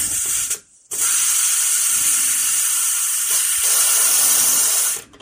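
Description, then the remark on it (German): A pressure cooker holding chicken soup, still under too much pressure, releases steam in a loud, steady hiss, broken by a brief gap early on, then continuing evenly for several seconds before cutting off abruptly. “Der Dampfdrucktopf ist noch, hat noch zu viel Druck drauf.”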